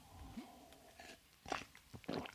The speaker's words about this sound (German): Aber schau, wenn ich, wenn ich was trinke, klingt das so.